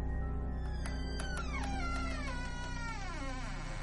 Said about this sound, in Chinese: 好像有人来开门了，于是他又回过了身，门很缓慢的就打开了。